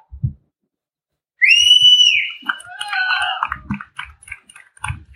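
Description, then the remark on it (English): A loud, high whistle rises and holds for about a second, followed by a burst of shrill, wavering cheering-like noise and a few scattered claps trailing off. No speech. “Hey, I think somebody's clapping out there.”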